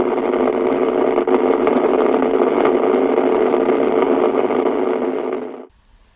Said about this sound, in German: Rosa Rauschen Germanium Transistor DDR.